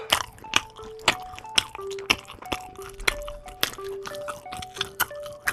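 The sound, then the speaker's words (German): Loud crunchy chewing of a Spreewald pickled gherkin from Brandenburg, with about a dozen sharp crunches in a steady rhythm. Faint tonal sounds hum quietly underneath, and nobody speaks. “Ach, das, das kracht ja richtig beim Kauen.”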